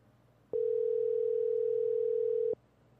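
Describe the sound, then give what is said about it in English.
A single phone ringing tone as a call is placed to a caller: one steady electronic beep that holds for about two seconds and then cuts off cleanly. It is loud, with no talking over it. “Let's let's call our first caller here.”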